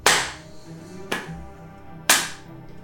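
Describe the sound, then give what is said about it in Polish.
Three sharp, reverberant hand claps, evenly spaced about a second apart, form a slow, deliberate clap coming from within smoke, with no one talking. “słyszeć e, klaskanie z tego dymu, takie wolne.”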